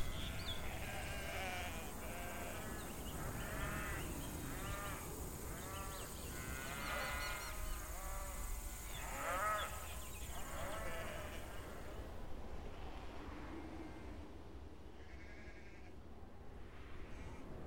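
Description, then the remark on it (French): A flock of sheep and goats bleating in the steppe, many overlapping calls in a steady chorus over an outdoor background rumble, thinning to a few scattered bleats toward the end. “Et puis, euh, plus vous vous rapprochez, vous allez distinguer des chevaux, des moutons, des chèvres, des yaks, des vaches, parfois des troupeaux immenses.”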